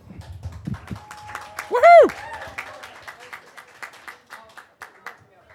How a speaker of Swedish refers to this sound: Eh, tack snälla. Tack så jättemycket. Tack en applåd.